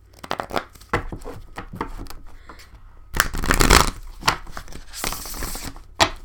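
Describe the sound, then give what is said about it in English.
A Spellcasting Oracle card deck being shuffled: irregular papery flicks and taps, then a longer riffling burst midway and another toward the end, with no one talking. “some reason, my shuffling skills suck today, so bear with me.”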